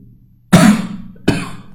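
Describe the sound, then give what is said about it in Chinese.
Two harsh, loud coughs in quick succession from a speaker recording a history reading lesson for the Ximalaya audio platform, the first longer and rougher, the second a shorter bark, with no talking around them. “不好意思啊，咳嗽一下”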